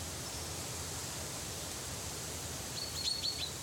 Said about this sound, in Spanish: Cuando volvió en sí, el sol estaba alto y el bosque resonaba con los cantos de los pájaros.